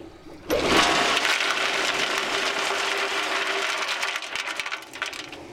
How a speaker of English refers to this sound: Bentonite is a kind of super absorbent clay that gets poured down the well to seal off the gas producing formations. Listen for the bentonite to hit the water at the bottom and lift up more.